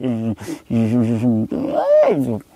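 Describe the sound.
A man's voice lets out an imitated angry roar in three loud, strained bursts, the last one rising in pitch before dropping off, like exaggerated furious yelling.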